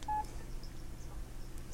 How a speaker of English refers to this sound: Hi, that last little beep that you heard was pressing the end key to get back to the home screen.